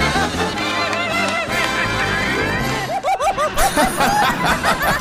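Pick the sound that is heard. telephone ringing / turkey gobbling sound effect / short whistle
turkey gobbling sound effect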